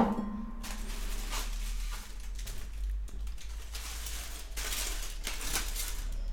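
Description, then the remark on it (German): Dishes and cutlery clink and clatter in a series of sharp, irregular knocks as coffee and apple cake are served, plates and cups being set down, over a steady low hum with no talking. “Das hören, hören alle, dass ich jetzt, dass wir jetzt auch noch Kuchen kriegen.”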